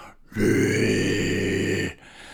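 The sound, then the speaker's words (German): A person imitates a deep, rumbling growl, one sustained guttural sound lasting about a second and a half, steady and loud, with no talking around it. “Und er stellt sich so richtig genüsslich hin, gibt so ein tiefes Growling von sich, so.”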